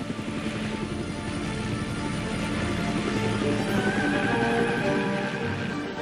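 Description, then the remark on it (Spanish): An American military helicopter of the Vietnam War roars steadily overhead, loud, its rotor blades chopping in a rapid low thump beneath a dense whine of engine noise, with no voices. “4.320 helicópteros americanos como este serán destruidos en el delta de Mekong.”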